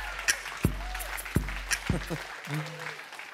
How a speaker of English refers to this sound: Right now, stand up. All y'all stand up, uh. start clapping and hooting and hollering and cheer on my good friend